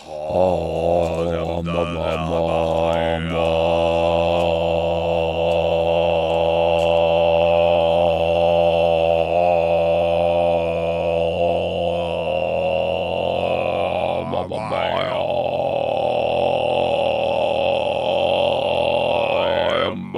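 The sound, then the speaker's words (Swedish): Voices attempt Mongolian throat singing, a sustained low droning growl with whistling overtones, held loud for about twenty seconds with a brief break near the end. “Vi det där var ju egentligen en throat singing vi försökte oss på.”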